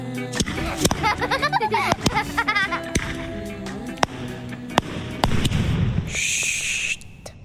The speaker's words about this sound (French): Mais ma période la plus créative, et qui engloutissait une bonne partie de mon argent de poche, ça a été la période pétard. Les pétards réunissaient deux de mes passions, le feu et le bruit.